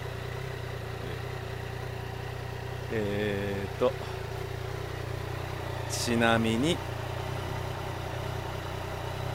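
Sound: motorcycle engine idling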